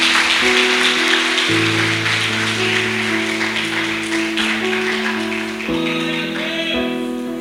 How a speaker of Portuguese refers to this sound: Não alguém puxou um aplauso e parou no meio do caminho. Eu vou te dar a oportunidade de concluir.